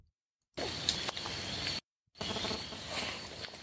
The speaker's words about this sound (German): Und apropos Schwarzwald, ich mache jetzt mal so zur, kurz zur Entspannung nochmal, äh, kurz so ein bisschen Sound, wie wir durch den Schwarzwald wandern im Hintergrund